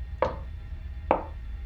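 Two light knocks on a wall made with a raised right hand, spaced nearly a second apart, each a short hollow tap that fades quickly into a faint background hum.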